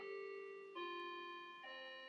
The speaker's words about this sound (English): Oh, that's the clock.